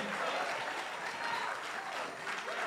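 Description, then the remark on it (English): An audience claps steadily and fairly loudly, a dense, continuous wash of many hands that holds for a few seconds; a faint voice may carry beneath it. “And if your God was a God of praise, you ought to be willing to put your hands together sometime, stomp your feet sometime”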